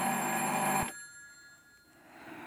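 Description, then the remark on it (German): A telephone bell rings loudly for under a second, a dense metallic jangle that cuts off abruptly, leaving faint quiet background afterward. “Dieses verdammte Telefon.”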